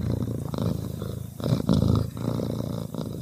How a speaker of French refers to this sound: Vous l'avez reconnu, c'est le ronronnement du chat, bien sûr.